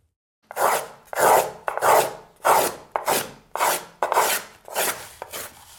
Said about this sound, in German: Das ist mein Lieblingswerkzeug, der kleine Wölbungshobel aus Messing, ist nur dreieinhalb Zentimeter lang.